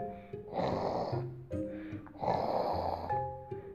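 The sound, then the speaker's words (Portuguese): A voice imitates a grandmother snoring in a cozy bed: two loud, rasping snore breaths about two seconds apart, each with a throaty rattle, separated by softer hummed breaths in between. “em cima de uma avó roncando”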